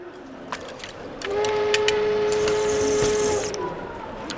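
A train rumbles along the rails, a steady metallic squeal rising over the noise for a couple of seconds amid scattered clacks and knocks, with no one speaking.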